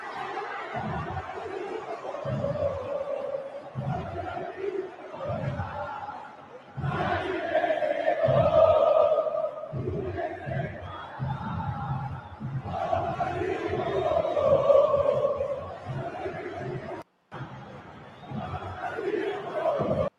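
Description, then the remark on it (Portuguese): A huge stadium crowd of Palmeiras football supporters chants and cheers in unison, a loud, continuous roar of voices with rhythmic surges, broken by a brief cut near the end. “É isso aí, o som da torcida, a torcida que apoiou muito o Palmeiras, foi determinante.”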